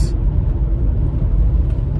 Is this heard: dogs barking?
no